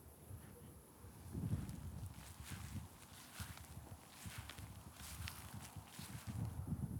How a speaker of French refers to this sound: j'avance dans l'herbe tranquillement.